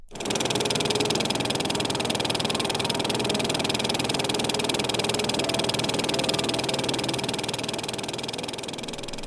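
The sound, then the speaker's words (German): A steady mechanical whir of an analog 35mm film projector running at a silent film festival in Bonn, Germany: a dense, even rattle with fine rapid flicker and a constant hum, fairly loud for the whole stretch, no voices. “So klingt einer der analogen Filmprojektoren bei den internationalen Stummfilmtagen in Bonn.”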